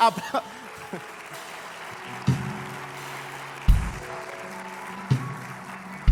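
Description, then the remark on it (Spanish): A large crowd claps steadily, the applause filling the whole stretch while deep, heavy thumps punch through every second or so. “Bueno, si vas a aplaudir”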